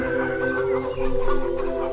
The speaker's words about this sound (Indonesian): Setelah selesai bertarung, mendadak ayam jago Cindelaras berkokok.